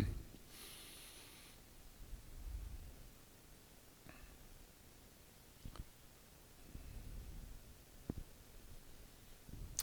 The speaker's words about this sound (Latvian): Man vēl tas kleps tur kaut kur iekšā bišķi izlien ārā.